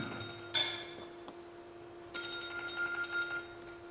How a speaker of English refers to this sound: I'm sorry, I apologize, I didn't turn off my phone.